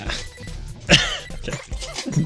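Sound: chair creaking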